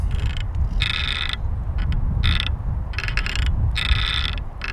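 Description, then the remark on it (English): A real estate sign hanging from an inverted L-shaped post on Stone Avenue creaks and squeaks in four or five drawn-out, grating bursts as it swings in the wind, over a steady low rumble of wind blowing outdoors. “Oh, listen to this the sound of a realty sign.”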